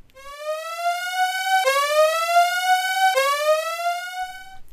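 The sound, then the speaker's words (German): A loud siren sound effect used as a spoiler alarm wails in three rising sweeps, each pitch climb resetting abruptly before rising again, rich in harmonics, with no voices over it. “Relativ frühzeitig, also jetzt, Spoiler-Alarm kommt jetzt”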